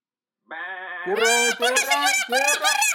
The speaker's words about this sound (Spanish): ¿Quién viene ahí? una oveja. ¿Cómo hace la oveja?